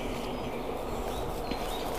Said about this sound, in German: Das ist nämlich ähm, der einzige Nachteil, wenn ich hier mit euch draußen in der Natur bin und das bei Vogelgezwitscher aufzeichne.